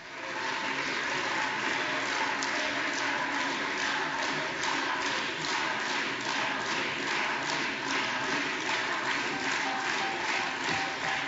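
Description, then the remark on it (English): Steady, dense applause with crowd cheering for Hakeem Jeffries, a continuous roar of many hands clapping that holds at an even, loud level for about eleven seconds without fading. “They're cheering for uh, Honorable Hakeem Kevin Jeffries.”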